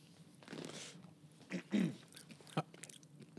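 Munching on crunchy M&M candies, with a few sharp crunches and softer chewing sounds in an irregular rhythm. No one speaks.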